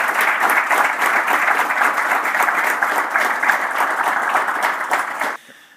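An audience claps steadily for several seconds, a dense wash of applause at even loudness that cuts off abruptly near the end, leaving a faint room tone.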